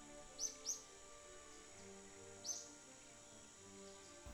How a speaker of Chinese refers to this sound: 公主娃娃很喜欢这朵花，她常常带着它去森林里记录小鸟的声音。